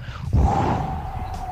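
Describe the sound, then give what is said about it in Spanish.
A voice imitates a white owl's wings flapping: one sudden, breathy whoosh that starts abruptly and carries on as a sustained rushing hiss, fairly loud. “eran las alas del búho, era blanco, blanco, blanco, blanco.”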